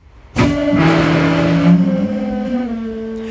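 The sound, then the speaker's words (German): A sudden loud blast of escaping air as the main air brake pipe of a VT2E train empties abruptly during a forced emergency braking, a harsh hiss with a steady whistling tone that holds for a few seconds and slowly eases. “Muss der Zug zwangsgebremst werden, entleert sich diese Hauptluftleitung schlagartig.”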